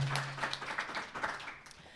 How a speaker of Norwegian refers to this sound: ja, liten applaus, da.